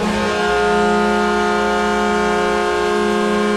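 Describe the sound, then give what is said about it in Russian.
The Los Angeles Kings ice hockey goal horn blares loudly and steadily for several seconds, a rich, buzzy chord of steady harmonic tones that settles in after a brief shift at the start, with no voices. “Если вы болеете за Лос-Анджелес Кингс, тогда этот звук вам прекрасно знаком.”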